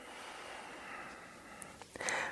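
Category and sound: human body sound, deep full exhalation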